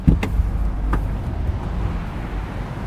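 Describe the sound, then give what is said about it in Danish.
Steady low rumble of motorway traffic passing an accident site where a row of cars stands still in the emergency lane, a continuous roadside drone with a couple of brief knocks near the start and no voices. “Han stiller sig ud på motorvejen i sin orange vest.”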